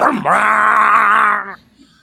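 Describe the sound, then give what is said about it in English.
A voice imitates a car or truck with a specially adapted loud muffler roaring by and shifting gear: a loud, sustained, throaty drone held for over a second after a brief rising start, then cutting off abruptly. “two but usually three and sometimes four young bucks in cars and trucks with specially adapted mufflers go roaring by and I, uh, and I mean roaring by okay and they seem to get great delight every time they pass a house they they shift gear,”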